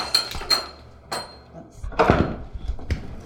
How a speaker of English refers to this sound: Some of the depot's original sliding doors are still functional they come apart like this